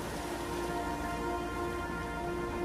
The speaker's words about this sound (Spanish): El punto terrestre más cercano, la isla de Manus, en Papúa Nueva Guinea, a más de 80 kilómetros de distancia. En esta situación, tan solo el sonido del mar y arriba las estrellas, cuando el cielo limpio de nubes permite verlas.